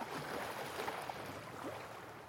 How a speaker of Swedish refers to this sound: I det öppna vattnet sveper sjöhävningen in, taktfast, som hjärtslag.